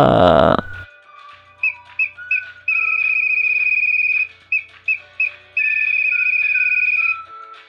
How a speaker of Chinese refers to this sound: 突如其来的口哨声，这是猫头鹰吹的口哨。